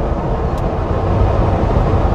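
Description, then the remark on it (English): A loud, steady low-frequency engine rumble from a truck right next to the listener in morning rush-hour traffic with detours, droning continuously without breaks, with no voices over it. “I'm next to a truck now. Can you hear that?”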